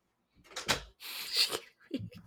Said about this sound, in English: Hold on one second. I have to fully shut my bedroom door.